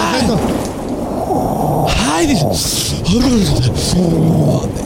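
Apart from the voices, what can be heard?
thunder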